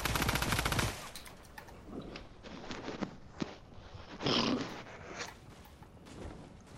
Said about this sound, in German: Hier werden die ganze Zeit Löcher gebuddelt.